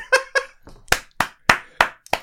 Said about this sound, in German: nee, das war Applaus, der manchmal einfach eingeschoben wird bei mir.